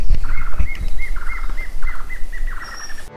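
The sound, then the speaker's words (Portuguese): A plain antvireo (choquinha-lisa) sings a series of quick, repeated whistled notes in several short bursts, clear over a faint background hiss with no voices. Recorded by an ornithologist in a study of forest cover and bird communities. “Também tem o arapaçu de garganta branca. E a choquinha lisa.”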